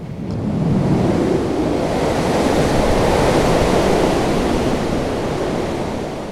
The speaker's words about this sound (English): Skies were darkening and the seas were getting rough. They describe it as a terrible storm. The seas were overwhelming the ship.